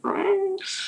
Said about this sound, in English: can you hear that? That's the cat. She's it's on okay. heat, and it's horrendous. She's just like it's like someone's trying to kill her.